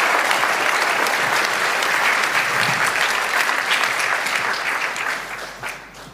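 Sustained audience applause for a discussion panel, a dense wash of many hands clapping at steady volume that begins to fade slightly near the end, with no voices over it.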